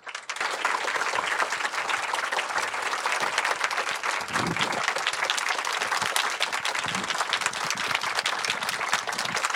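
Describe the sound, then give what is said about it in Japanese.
An audience applauds steadily for nearly ten seconds to welcome film director Mike Mills and contemporary artist Yukinori Maeda of Cosmic Wonder onto the stage: a dense, even wash of many hands clapping at a constant level with no talking over it. “えー、今日は監督のマイク・ミルズさんそして、えー、コズミック・ワンダー主催の現代美術作家前田幸則さんにお越しいただいています、えー、早速お二人をお呼びしたいと思いますので皆様拍手でお迎えくださいどうぞ”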